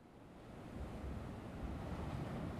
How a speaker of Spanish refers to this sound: Por fin llegó a la orilla del mar y se sentó sobre una roca. Mucho tiempo pasó allí, escuchando el batir de las olas contra la orilla. El melancólico sonido del mar era como un bálsamo para su corazón herido.